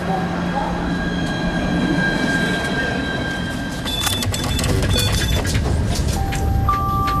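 Busy railway platform ambience at the train station in Brest, with a steady low rumble of trains, sharp metallic screeches and clanks, and high whining tones from wheels and brakes, with faint murmurs of people in the background.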